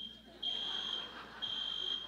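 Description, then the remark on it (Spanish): A shrill, high-pitched alarm beeps twice in long, steady tones separated by a short gap, sounding like a smoke detector, with a faint murmur of background noise underneath. “Mejor dicho, no se va a librar del, de la alarma.”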